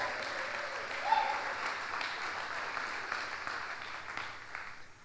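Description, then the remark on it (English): An audience applauds steadily for two people on their way up to the front, a dense wash of clapping from many hands that holds at an even level for several seconds before starting to taper off near the end. “I want you to give them a round of applause as they're on their way up here today.”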